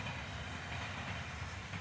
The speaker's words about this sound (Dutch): En eh, met de trein die voorbij komt gaan we afsluiten.